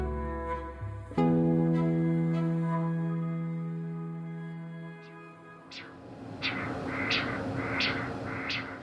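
A steady electronic drone fades out, then the heartbeat of a chicken embryo on ultrasound emerges as rhythmic whooshing pulses, about one or two per second, moderately loud, with no voices, in Tucson.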